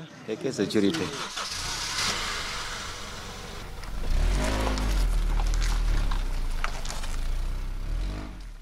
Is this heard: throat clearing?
no